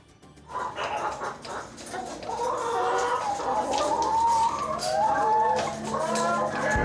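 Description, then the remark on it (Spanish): A dense chorus of hens clucking and squawking fills a poultry farm that raises turkeys, hens and eggs, many birds calling over one another in a steady, busy din with no voices present. “una granja avícola para la producción de pavo, gallina y huevo.”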